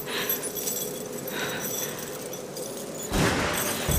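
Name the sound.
bunch of keys jangling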